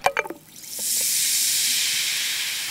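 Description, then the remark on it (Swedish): A few quick clicks and rattles, then a steady, bright fizzing hiss as Alvedon effervescent painkiller tablets dissolve in water, rising in and holding evenly to the end, with no talking. “sådana här Alvedon-brustabletter som jag var tvungen att dra i mig när jag kom hem då.”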